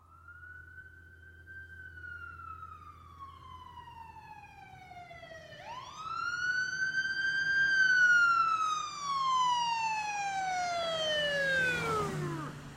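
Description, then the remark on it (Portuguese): Sirens of about six police cars slowly arriving on a university campus wail in long, slow pitch sweeps, growing louder midway, with a low engine rumble underneath and no talking. “Meia dúzia de carros da polícia chegaram vagarosos ao campus, e a maioria estacionou em frente ao Franklin Hall, onde a garota morava.”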